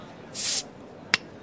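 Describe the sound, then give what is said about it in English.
A bottle is opened with a bright quarter-second burst of fizzy hiss, followed a moment later by one short, sharp pop. Clear, with no voices. “Pop a bottle.”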